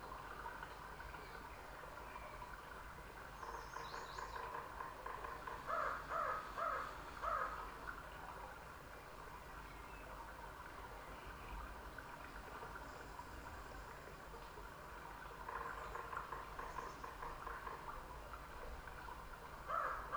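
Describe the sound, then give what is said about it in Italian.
A quiet California forest ambience with a steady outdoor hush, broken by short bursts of crows cawing in a few quick calls, first around the middle and again near the end. “i suoni che sto riproducendo io che sono i suoni di un bosco in California”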